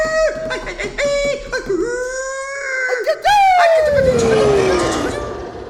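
A high-pitched playful scream: a few quick squealing yelps, then a longer shrill cry that swoops up and slides down in pitch, loud and lively.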